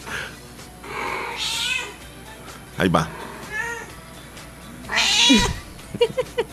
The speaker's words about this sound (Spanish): Ese es el gato, Leslie.